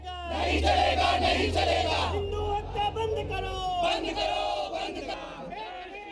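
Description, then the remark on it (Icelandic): A protest crowd in Delhi shouts slogans in unison, such as calls to stop killing Hindus, loud rhythmic chanting of many voices rising and falling in repeated phrases, with a steady low rumble underneath throughout. “Þá hafa verið hrópuð slagóra á bord við hættið að drepa hindúa, það þarf að stöðva íhata og svo framvís.”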